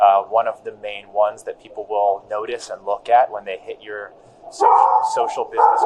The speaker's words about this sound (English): Sorry, that's that's my dog Moses. For everybody listening, you already know that. See that, but that's okay. He's getting attention. Does he get? He wants attention